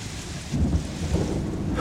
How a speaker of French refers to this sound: Il se battit 60 jours durant, dit Las Casas, contre une très forte tempête et de très grosses pluies, accompagnées d'éclairs et de tonnerres, sans voir le soleil ni les étoiles, à croire que le monde allait être englouti.